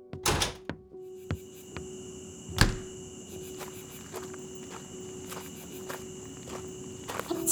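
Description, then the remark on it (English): Footsteps crunch along outdoors in a backyard on a hot night, a few heavier steps and a solid thud early on, then lighter, steady steps continuing over a constant high chirring of crickets and insects. “Hang on, let's go outside.”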